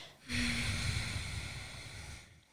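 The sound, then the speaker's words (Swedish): A single long, deep breath drawn in through the nose, far back in the throat, during a breathing exercise, a steady airy rush lasting about two seconds, fairly loud, with no talking. “Långt bak i halsen och andas ut genom näsan denna gången.”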